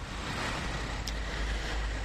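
Steady outdoor street ambience in Reinickendorf, Berlin, with a low rumble of passing cars and a broad wash of road noise, fairly constant and moderately loud, with no voices.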